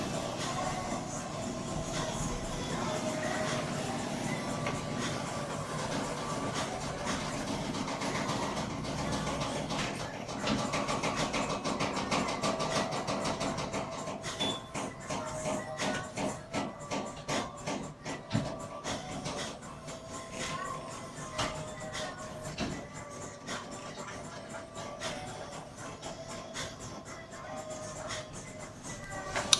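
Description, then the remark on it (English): A washing machine runs steadily with a dense mechanical hum and whir, turning into a faster, rhythmic thumping churn in the second half, loud and continuous throughout. “But I'm one variable, loving human being with a washing machine in the background.”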